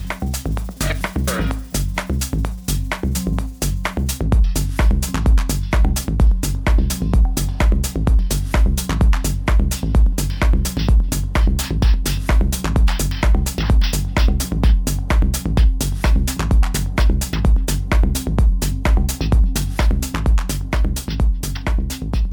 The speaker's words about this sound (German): wir haben äh, gerade einen Mitschnitt aus, einer, aus einem dieser wilden Clubnächte gehört. Ah ja, sehr schön. Ja? Das heißt, ähm, alles, was du gerade gehört hast, ist eine Momentaufnahme aus einer Clubnacht.